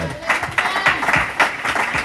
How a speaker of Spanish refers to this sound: Denle un fuerte aplauso a Cristo en esta hora